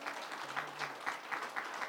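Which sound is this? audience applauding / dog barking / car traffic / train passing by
audience applauding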